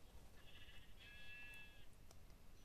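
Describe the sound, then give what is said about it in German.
A single sheep bleats once, a wavering, slightly nasal call lasting about a second and a half, over a low, steady background rumble. No one speaks. “So, Schafe.”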